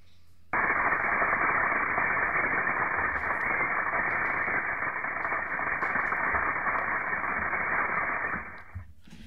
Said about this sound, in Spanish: Ahí estaríamos escuchando cómo sonaría una erupción y la lava corriendo en Marte.